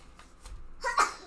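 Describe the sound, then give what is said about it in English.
A single sneeze, a short voiced burst that builds and then snaps out sharply, preceded by a couple of faint breathy sounds. “bless you. Bless you.”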